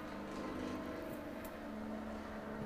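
A motorcycle engine drones outside on a rainy, gloomy day in New York, a steady, moderately loud rumble with a buzzing tone that holds fairly constant throughout, with no voices present.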